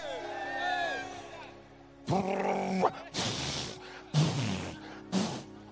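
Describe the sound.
A voice imitates loud snoring: a drawn-out groaning sound followed by three harsh, rasping snorts about a second apart, forceful.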